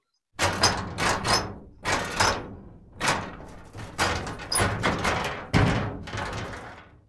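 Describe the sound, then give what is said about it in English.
The lock on a metal cupboard being worked: a run of sharp mechanical clunks and rattling clicks, about eight or nine in an uneven rhythm, each ringing briefly before the next, with no voices. “It was it was the lock on a, a metal cupboard.”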